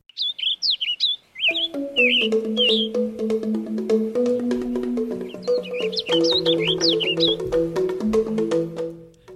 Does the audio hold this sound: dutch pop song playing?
yes